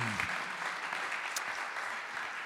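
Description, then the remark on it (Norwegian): Steady audience applause for people stepping down after a prayer fills the whole clip, a dense, even patter of many hands clapping at a constant loudness, with a brief bit of voice at the very start. “Skal vi gi dem en uh, god applaus på vei ned også?”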